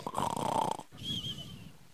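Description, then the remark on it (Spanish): A person fakes a snore, pretending to be asleep: a rough, rattling inhale followed by a softer, whistling wheeze on the exhale, two breaths in a row with no talking. “¿Alguna vez te hiciste el dormido? Anda a sacar el perro.”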